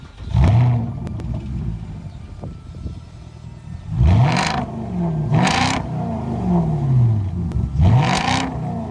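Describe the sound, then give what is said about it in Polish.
The V8 engine of a roughly 2.5-tonne Porsche SUV, built on the Audi Q7 and Volkswagen Touareg platform, revs hard in repeated bursts, each one a rising roar that peaks and falls back, about four surges with a throaty, rumbling idle between them and no voices. “Pod maski przeszło 2,5-tonowych bydląt trafiły silniki V8, wolnosące i turbo doładowane.”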